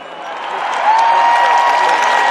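A crowd bursts into dense, steady applause that swells slightly louder and holds, many hands clapping at once in a continuous wash, with a faint sustained whistle-like tone running underneath.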